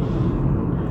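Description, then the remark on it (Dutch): A steady low-frequency rumble fills the cabin, the muffled drone of tires and engine inside a car driving home, constant and fairly loud with no voices. “Ik ben dat in mijn auto aan het opnemen, dus sorry voor het lawaai.”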